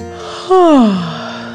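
A single drawn-out yawn, starting with a sharp intake and sliding down in pitch into a long, fading exhale.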